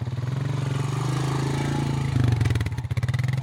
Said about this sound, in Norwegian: Nære sentrumsområder så ser man ofte mange motorsykkelgjenger i disse gatene.